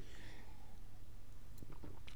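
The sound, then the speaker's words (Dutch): Quiet mouth sounds of someone taking a small sip of water, a few soft wet clicks and a swallow near the end over a low background hum, with no talking. “Even een slokje water.”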